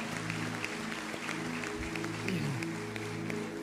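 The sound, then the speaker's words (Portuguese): Steady, dense applause from an audience clapping for God during a sermon, many hands clapping together at a constant loudness, with sustained low musical tones droning underneath and a brief sliding pitch partway through. “Aplaude ele bem forte, aplaude aí na sua casa, aplaude.”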